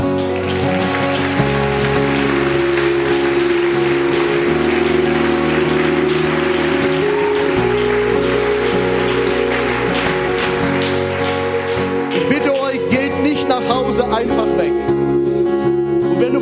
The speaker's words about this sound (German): Wir geben dem Herrn und diesen Menschen für ihren Mut Applaus.